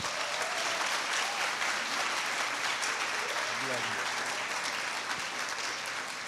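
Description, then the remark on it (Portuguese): An audience applauds guests who came to the event once more, a dense wash of clapping that stays loud and even throughout, with a few faint voices calling out underneath. “Aplauda eles aqui mais uma vez.”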